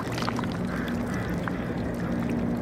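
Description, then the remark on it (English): Water trickling among barnacles at Kits Beach, making a dense, faint crackle of tiny clicks, with a steady low hum of city noise underneath. “The tiny clicking sounds that you hear are the meeting of the water and the barnacles.”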